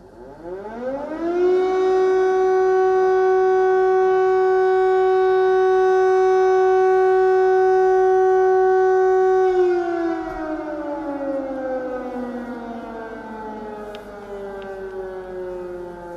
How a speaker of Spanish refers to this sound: suenan las sirenas en la noche de escribir.